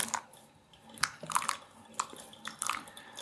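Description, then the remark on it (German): Water being poured over coffee grounds in a pour-over after the blooming phase, filling up to 100 milliliters, heard as quiet, irregular wet crackles and soft splashes that come in short bursts, with no one talking. “So, das heißt, jetzt ist die Blooming-Phase vorbei und wir gießen das mal auf 100 Milliliter auf.”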